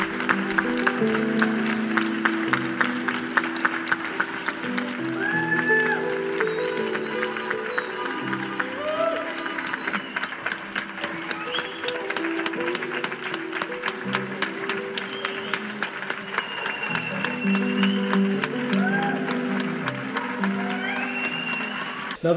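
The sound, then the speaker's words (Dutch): A crowd applauds the churchgoers steadily, many hands clapping in a dense patter that grows crisper in the second half, with voices chattering and calling out underneath and a few short whistles. “Eerst een applausje voor de zorgmedewerkers en nu een applausje voor de kerkgangers.”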